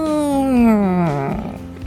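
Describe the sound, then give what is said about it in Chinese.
A single loud, drawn-out meow voiced by a person, its pitch sliding steadily downward for over a second before trailing off into soft, breathy noise. “说完，猫老大竖起尾巴，对着天空叫了好大一声：“喵！”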